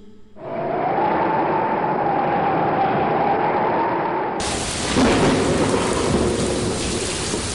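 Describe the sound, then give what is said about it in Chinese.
A steady, deep rumble of rolling thunder fills the first half, then a loud, hissing downpour of pouring rain swells in and continues to the end, with no voices. “轰隆隆，雷声不断，哗啦啦，雨水不停。”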